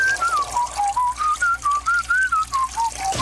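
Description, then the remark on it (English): A man at a urinal whistles a wandering tune in short, steady phrases, clear, over a constant hiss like running water. No one speaks. “He also loves to do manly things like chopping wood and whistling at the urinal.”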